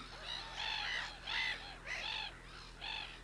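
Black-headed gulls give a run of harsh, raspy calls, about five grating squawks in an uneven rhythm, moderately loud, with no voices and a low steady hum underneath.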